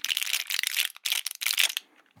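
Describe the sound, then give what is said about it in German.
Crisp crinkling of a tablet blister pack, handled in three quick bursts with short pauses between, sharp crackles and rustles fading out at the end. “Das Ganze war das Rascheln oder Knistern von einer Packung Tabletten.”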